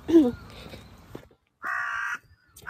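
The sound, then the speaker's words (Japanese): A crow caws loudly and harshly, one long drawn-out call followed by the start of another, with faint background sounds before it. “すごいすごいカラスが今はい”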